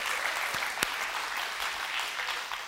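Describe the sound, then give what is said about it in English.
A crowd applauds in a steady, dense wash of overlapping claps that holds at an even loudness throughout, with one sharper clap standing out briefly near the start. “You can clap for him.”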